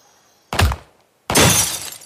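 Two loud, sharp bangs about a second apart as shotgun cartridges strike a door and break a window at the Menendez family home: the first a heavy, booming crack, the second a bright burst of shattering glass that rings and crumbles briefly before fading.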